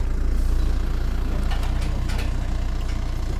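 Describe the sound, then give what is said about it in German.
A tractor engine chugs steadily, a constant low rumble with a rhythmic throb, accompanied by faint clanks and rattles, as the tractor transports a bale of hay into a release enclosure for wisents. “Hier transportiert Benjamin Brunner mit dem Traktor noch einen Ballen Heu ins Auswilderungsgehege.”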